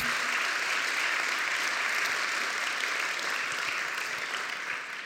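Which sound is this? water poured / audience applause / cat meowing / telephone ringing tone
audience applause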